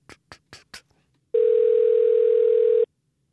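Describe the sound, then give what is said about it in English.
Four quick clicks are followed by one long, steady electronic tone of a phone line ringing, loud and clear with nothing else around it, lasting about a second and a half, as a call to Rhode Partners, an architecture firm in Austin, is transferred to voicemail. “I got transferred to voicemail.”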